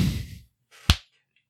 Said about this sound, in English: Get it because I put the slap in there too.